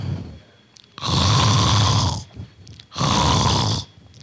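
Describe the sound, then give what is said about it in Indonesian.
Two loud, rasping snores about two seconds apart, each a long rattling inhale filling the foreground, with quiet breathing between them and no talking. “Ya, pernah lihat orang ngorok kan?”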